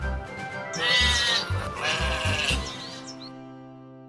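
Sheep bleat loudly, two long wavering cries in quick succession, with quieter bleating from other sheep around them and no talking.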